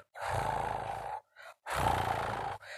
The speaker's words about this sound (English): When she returned, she almost screamed when she saw the three mongooses on her bed, and poor Bijli growling softly